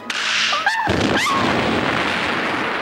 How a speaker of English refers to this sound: Slight pause, then huge, huge yeah. fucking explosion. The whole of the front door explodes.